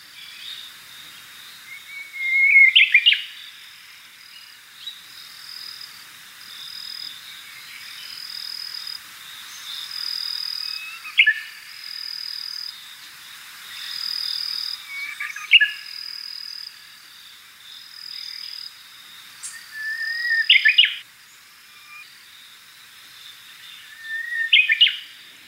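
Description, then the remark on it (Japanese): A Japanese bush warbler sings in October, unusually late in the year, giving several short, somewhat faltering phrases at irregular intervals over a long time, over a continuous high-pitched chorus of crickets. “ウグイスがさえずるのは3月頃から8月まで10月のさえずりはとても珍しいことです少し頼りない鳴き方ですが長い間鳴いていました”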